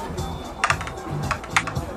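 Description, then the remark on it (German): A digital dice-roll effect: two six-sided dice clatter in a quick series of sharp clicks and knocks spread over about two seconds, with a faint low hum beneath. “Natürlich gibt es ein Würfelgeräusch.”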